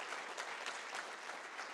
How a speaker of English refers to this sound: Clap your hands, man. It's awesome. It's awesome.